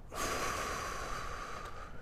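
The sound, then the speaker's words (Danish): A long, steady exhale through the mouth after a deep breath in through the nose, during a breathing exercise, lasting about two seconds, clearly audible, a soft airy rush with no talking over it. “Tag en dyb indånding med næsen og udånd.”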